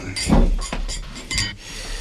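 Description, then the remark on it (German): Three glasses are set down on a kitchen dinner table being laid, one after another, giving several short clinks and knocks with soft rattling of tableware between them, fairly loud and irregularly spaced. “Äh, Justus, deck doch bitte noch drei Gläser auf.”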